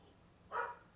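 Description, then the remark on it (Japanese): A dog, the speaker's own household dog, gives one short, fairly soft bark, standing out briefly against a faint background hum with no other sounds. “犬が鳴いてるうちの犬が何か泣いてるうん大丈夫かなうんかなと思いながら”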